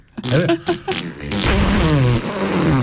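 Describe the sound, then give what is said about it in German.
A few short, sputtering fart sound effect samples, then one long, loud, buzzy fart with a wavering pitch that stretches out to the end, clear with no talking. “es ist so schlimm geworden, dass ich wirklich Furzgeräusch mit dem Micha noch eingefügt habe”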